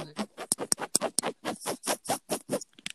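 Fingers scratch rapidly on a bed's fabric surface, a quick run of rough, rhythmic strokes, with no voices.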